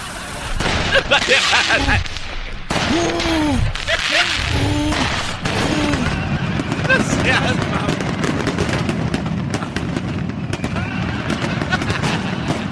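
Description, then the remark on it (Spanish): Repeated sharp bangs of firework rockets crack out in quick, uneven bursts over a noisy crowd at a women's march, with voices shouting and chattering throughout. “Quería parar la marcha de ustedes, las mujeres, con esos cohetes.”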